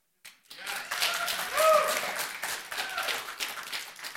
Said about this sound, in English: Everybody's in a generous mood. You just want to clap for everything.